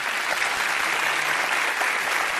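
A crowd applauds singer Mariene de Castro, clapping steadily in a dense, continuous burst of applause, loud and sustained throughout with no voices standing out.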